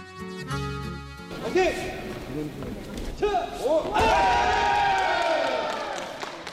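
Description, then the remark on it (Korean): Loud, strained kiai shouts ring out repeatedly during a judo match as two fighters struggle to grab each other's judo uniforms, while heavy thuds and slams hit the mat, set against a busy crowd murmur and scattered cheers, all energetic. “요란한 기합 소리와 함께 서로의 도복을 잡으려 안간힘을 쓰는 두 사람의 박력 넘치는 한판.”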